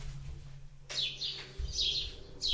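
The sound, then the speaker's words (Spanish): Birds singing in a series of bright, high chirping phrases that start after a short pause, repeating about four times over a low, steady rumble, moderately loud. “en las aves de los cielos, como las que cantan”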